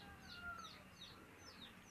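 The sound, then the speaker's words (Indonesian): A neighbour's chickens near the house cluck in a loose, repeated series of short calls, fairly faint, over a steady low background hiss with no one talking. “ayamnya tetangga but it's okay aku cuma mau bilang ini ini kayaknya ayam ayam di dekat rumah aku ini kayaknya mau banget masuk dalam podcast”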